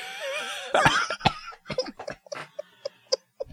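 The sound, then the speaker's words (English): A fit of coughing, a series of about eight short, harsh bursts in an uneven rhythm, following a brief moment of voiced, laugh-like sound at the start. “Did I make you cough?”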